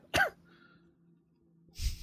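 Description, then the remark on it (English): A single sharp sneeze bursts out loud near the start, then a quiet stretch with a faint hum before a second short, noisy burst at the end. “Gesundheit. Don't worry about it.”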